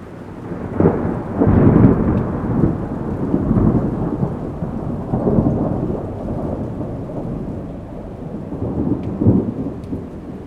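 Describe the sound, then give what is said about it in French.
A thunderstorm over an island, with lightning and deep, rolling rumbles of thunder swelling and fading over steady rain. The low booms are heavy throughout, with no voices. “Des nuages noirs s'accumulent au-dessus de son île. Des éclairs fendent le ciel.”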